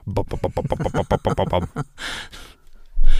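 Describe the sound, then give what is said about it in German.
A voice imitates the very loud engine of a longtail boat crossing a bay, a fast, rhythmic string of throaty pulses, then trails off into breathy hissing and a low rumble at the end. “Dann diese Longtail-Boote, die dann Wahnsinnskrach machen, die da immer her durch die Bucht Mach fahren. Mach das bitte nochmal, wie machen die?”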